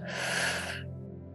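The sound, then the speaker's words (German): A single breathy exhale through the mouth after a deep breath in through the nose, fairly strong, lasting under a second before fading into a quiet low hum. “Und jetzt atmen wir noch einmal tief durch die Nase ein und über den Mund aus.”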